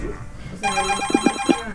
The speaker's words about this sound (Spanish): Voy a, contestar la llamada del, del, WhatsApp exclusivamente para explicarle al oyente que por el WhatsApp no le puedo atender.